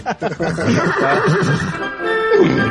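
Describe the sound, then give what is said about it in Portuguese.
A person imitates the whinny of the horse from Brave with the voice, producing a loud, wavering, neigh-like call that runs for a few seconds. “A vinheta original do Capivara Humana, faz uma aí com o cavalo do Brave está falando aí.”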